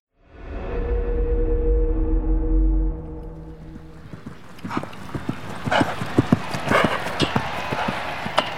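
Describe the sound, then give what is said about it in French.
Galloping horse hooves thud in quick, uneven bursts on turf during a polo match in the second half, fairly loud, following a low, steady droning rumble at the start. “à cheval, guindé dans son uniforme, le maintien impeccable et le visage concentré, le prince Charles, 22 ans, tente en vain d'inverser le cours de ce match”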